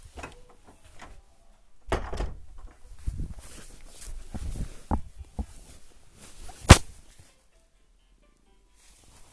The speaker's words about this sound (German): Leute, ich mach kurz die Tür zu.